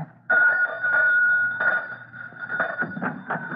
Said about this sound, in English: Don't keep ringing the bell, son. I hear you.